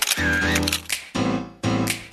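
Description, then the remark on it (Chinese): Camera shutter clicks, three in quick succession, each sharp snap trailed by a buzzing mechanical whir, heard alone without any voices. “咔嚓咔嚓，美好的事物就用相机拍下来。”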